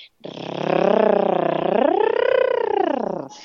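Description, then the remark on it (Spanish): A single voiced rolled R trill held for about three seconds as a vocal warm-up, its fluttering buzz steady and fairly loud, with the pitch dipping then sweeping upward partway through. “Mm, luego pasaríamos al y luego terminaremos con la R.”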